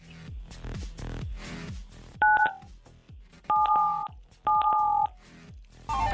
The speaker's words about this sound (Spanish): En la Ciudad de México, entonces vas a digitar 977. ¿Estás listo? Sí, claro. Venga, una, dos, tres.